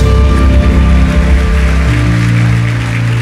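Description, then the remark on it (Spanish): A crowd gives a loud round of applause to God, clapping steadily in a dense patter of many hands, over loud sustained musical tones that shift pitch partway through. “Vamos, dale un aplauso fuerte a Dios.”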